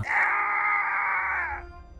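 A man lets out a loud, sustained scream of pain lasting over a second and a half, strained and harmonic, then cuts off, leaving a low rumble behind.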